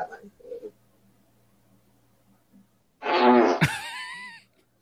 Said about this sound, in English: Hey, camera. Y'all gonna hear my fart? we did. Everybody did.